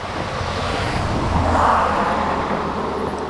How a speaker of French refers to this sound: Ça fait bien 20 minutes que je marche au bord de cette route à sens unique, direction je ne sais où. Le bras tendu, le pouce en l'air. Je sens le souffle chaud des moteurs me brûler les joues chaque fois qu'une voiture me dépasse sans s'arrêter.